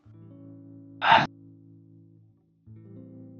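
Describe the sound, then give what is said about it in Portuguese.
A voice imitates a ghostly sigh with one short, loud, breathy exhale. It rises over a steady low droning tone that cuts out briefly before returning. “Como se fosse um suspiro de uma alma ou de um fantasma, algo do tipo.”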